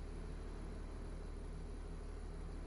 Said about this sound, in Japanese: 通学バスが到着し、ユマが先に乗り込む。